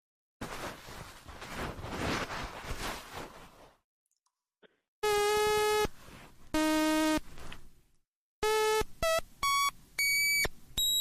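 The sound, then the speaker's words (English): A tiny Hershey-bar-sized electronic toy piano of a kind sold in 1987, powered by a watch battery, beeps out notes as its little rubber buttons are pushed: a few seconds of hissy noise, then two long buzzy tones, followed by a quick run of short, shrill, loud beeps at shifting pitches. “So in 1987, they sold these little, uh, like Hershey bar sized pianos that used a watch battery, and you would push the little buttons, and they were rubber buttons, and it would make that exact noise.”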